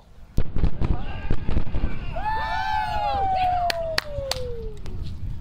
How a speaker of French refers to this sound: Mais il y a encore plus fort, ce sont les booms soniques provoqués par l'atterrissage des deux boosters lors de leur retour sur Terre. Trois booms par booster.